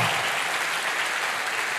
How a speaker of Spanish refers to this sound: Quiero que le dé un fuerte aplauso a esta palabra.